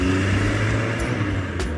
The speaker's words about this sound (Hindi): रणवीर अपनी गाड़ी में बैठा और बिना वक्त गवाए वहां से हवा हो गया